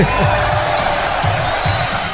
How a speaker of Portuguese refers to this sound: Aí sim, cadê aplausos pra ele, gente? Pô, aê!